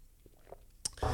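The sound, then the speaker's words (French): A quiet, small sip of water: faint wet mouth sounds, a sharp little click, then a short breathy gulp or exhale to finish. No one speaks. “Je vais prendre une petite gorgée d'eau.”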